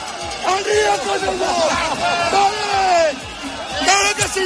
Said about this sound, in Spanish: Esto es el sonido de la máxima tensión que se vivió este viernes en Zaragoza cuando un grupo de agricultores intentaron aproximarse a las Cortes de Aragón, donde se estaba celebrando un pleno. Los manifestantes eh, llegaron a enfrentarse a la policía